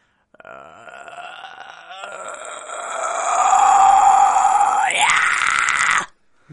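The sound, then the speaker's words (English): A gritty, distorted vocal fry scream made by adding distortion to vocal fry with the vocal cords, held for about six seconds, starting as a rough, crackling growl and building louder and brighter, with a sharp upward pitch break near the end before cutting off. “you're, you're d- adding distortion Right. to this uh, vocal fry.”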